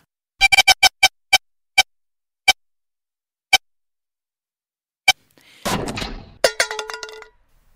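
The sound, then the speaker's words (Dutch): A siren breaking down: a run of sharp clicks that slow and spread out, then a harsh, sputtering burst of noise with strained, broken tones before it cuts off. “Dit is de sirene die stuk gaat.”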